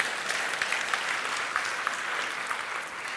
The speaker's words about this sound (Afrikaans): Geef hulle lekker hande klap toe.